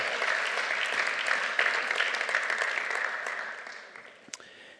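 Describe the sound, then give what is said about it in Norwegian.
An audience claps steadily after a Bible passage is read aloud, a dense crackle of many hands that holds strong and then thins out and fades toward the end, with a sharp clap near the finish. “Vi må nesten gjerne en klapp for å kunne holde tråden i dette her.”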